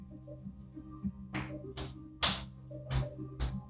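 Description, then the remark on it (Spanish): Five sharp taps on a window glass, knocked by a person at an uneven pace to imitate a noise heard at the window, with a low steady hum in the background. “Así, esta, esta ventana.”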